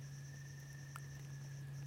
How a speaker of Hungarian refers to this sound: Esik az eső, Kabócák. Csir- csiripelnek a madarak.